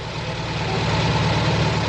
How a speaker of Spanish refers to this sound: Ah, el coche de doña Armandina.